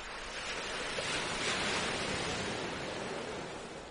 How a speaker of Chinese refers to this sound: 听着海浪声，感受自己的呼吸。